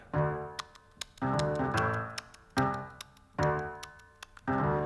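A clock ticks with sharp, crisp clicks, set against sustained ringing tones that swell in regular pulses roughly every second; close and fairly loud, with no voices.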